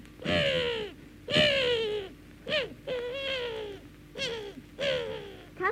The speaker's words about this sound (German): Weil, was schreien denn da die Möwen? Ja, die, die rechnen sich gerade aus, da wie viel der heute ist.